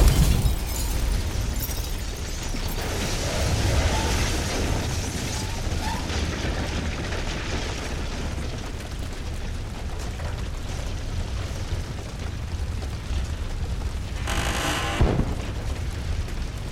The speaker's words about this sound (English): Then what? Then I woke up to an actual fire.